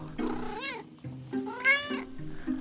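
A cat meows twice, a short rising meow followed by a longer, drawn-out wail with a slightly strained, caterwauling tone, no voices around it.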